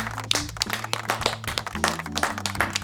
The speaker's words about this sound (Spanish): ¡Un aplauso para mí!